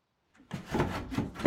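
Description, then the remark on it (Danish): A door of an old mill on Bogø, Denmark, is pushed shut against strong wind, with a run of rough scraping and creaking bursts that swell and end in a louder final push. “Så skal vi have fat i døren, for når det blæser sådan, så giver det gennemtræk, fordi der jo er en port.”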